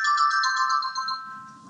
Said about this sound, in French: Ok, bah, ça c'est la sonnerie euh, qui dit que, qui dit que j'avais raison.